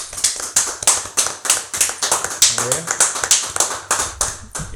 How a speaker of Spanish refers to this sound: A está, son las nueve, señores. El aplauso para todos los médicos.